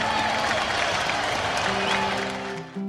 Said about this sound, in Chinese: 让我们一起用热烈的掌声恭喜理发店！